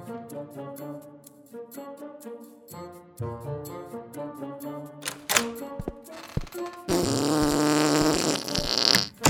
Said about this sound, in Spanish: qué raro. ¿Qué son esos ruidos de pedos?